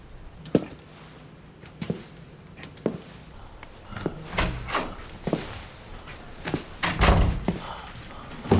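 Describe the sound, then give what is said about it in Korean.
A heavy basement door is worked open amid a string of wooden thunks and rattling knocks, irregularly spaced, ending in a louder, deeper thud. “하루 종일 갇혀 있다가 지하실 문이 열리고 피폐한 모습으로 빠져나가려던 찰나 자신에게 거절당해서 며칠째 안 보이나 싶어 걱정하던 연주가 그를 발견합니다.”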